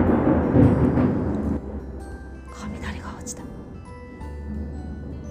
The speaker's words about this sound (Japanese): 雷が落ちた